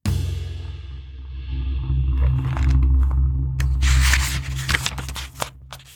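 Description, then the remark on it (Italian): A heavy train rumbles low and steady while harsh metallic brake screeches and grinding scrapes rise over it, growing more jagged and intermittent toward the end, as it passes Perm station at dusk. No voices are heard. “Con un lacerante stridore di freni, la stazione di Perm passò via dal finestrino immersa nel crepuscolo.”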